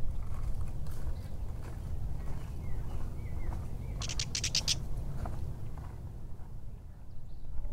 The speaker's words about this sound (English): What was that bird that just went? Catbird. That's why they have this. you hear it coming out of the bushes. they they love this bramble.